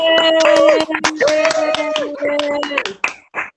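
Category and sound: crowd, audience applause and clapping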